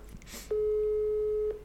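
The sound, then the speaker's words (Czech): A steady telephone call tone sounds for about a second, a single continuous electronic beep, clear, preceded by a brief muffled rustle; it is an incoming phone call from a mother. “Já ti říkám, za našich 10 000 posluchačů, my si všichni přejeme, aby si vyřešil tenhle ten telefon s mámou.”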